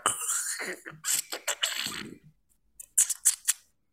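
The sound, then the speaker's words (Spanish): Wet squelching as a microphone is pressed into a soft gelatin bubble: a run of sticky squishes, a short pause, then a few quick, sharp squeaky pops. “Meten el micrófono como una de estas burbujas de agua. no es de agua, es como de gelatina.”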